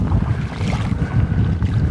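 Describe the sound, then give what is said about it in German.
Continuous sloshing of shallow water as someone wades ankle-deep through it on a tidal mudflat, with soft splashes over a steady rumble of wind buffeting the microphone, fairly loud, with no talking. “Ich bin den trockenen Teil des Wassers verlassen und warte knöcheltief durch Wasser.”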